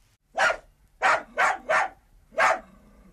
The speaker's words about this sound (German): Als Bertha die Kette an der Tür öffnete und das Mädchen eintrat, sprang Gustav freudig an ihr hoch und bellte schon wieder wie wild.